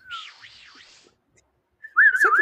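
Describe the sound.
Someone whistles a short video game tune, Link's whistle, in two bursts: a soft, wavering phrase, a brief pause, then a louder, trilling phrase, with no talking.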